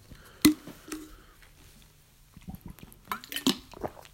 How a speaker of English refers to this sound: excuse me. I'm having trouble clearing my throat right now. Drink some more water.